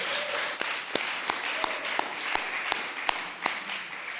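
An audience applauds God, a dense wash of clapping with a few sharper, louder claps landing at a steady beat, roughly three per second, over about four seconds.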